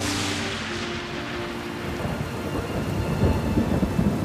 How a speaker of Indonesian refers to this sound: Akan tetapi hujan turun dengan sangat lebat.